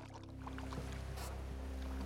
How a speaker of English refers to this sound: A team of British hunters row up to the beach on several small boats.